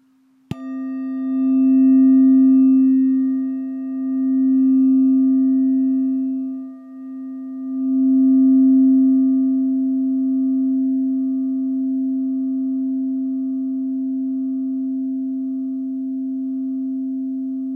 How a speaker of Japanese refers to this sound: リンの音を浴びるような気持ちで聞いてみてください。